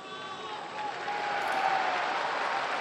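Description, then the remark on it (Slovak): Pilgrims and faithful in the square applaud after Pope Francis's Angelus prayer and blessing, a dense, steady wash of clapping that swells after the first second and holds, with some faint voices mixed in. “Pozýva sa ako tradične vždy aplauz a potlesk z námestia od pútnikov a veriacich, ktorí dnes prišli na stretnutie so Svetým Otcom.”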